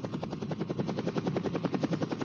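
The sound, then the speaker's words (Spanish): A Codesur helicopter makes a landing to drop off an expedition team with light equipment, its rotor blades beating in a fast, steady thump over a loud, continuous engine roar, with no voices. “Realiza un perfecto aterrizaje y podemos así descender con nuestro equipo ligero.”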